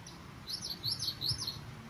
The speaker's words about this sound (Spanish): Oye, ¿hay un pájaro? Ajá. La naturaleza.